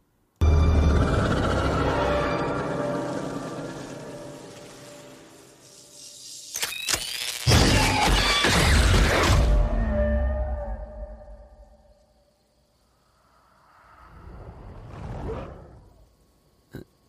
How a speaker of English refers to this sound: And for a lot of you uneducated people, that was the sound of a ghost killing an old man sitting in a chair. Because I know a lot of you may not know what that sounds like, but I do.